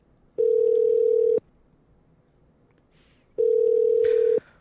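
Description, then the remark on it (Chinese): A telephone line tone while placing a call: two steady, mid-pitched one-second buzzes separated by a two-second pause, loud and clear over faint background hiss, with no voices. “然后接下来，好，我们再打一通电话。”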